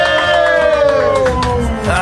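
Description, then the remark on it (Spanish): A loud crowd shouts and cheers continuously for about two seconds, a dense wash of voices with a few sustained, high yells ringing out above the roar. “ay, ahora sí gritan, eh, ahora sí gritan.”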